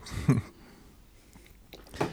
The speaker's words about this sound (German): mal kurz den Snickers zu Ende kauen.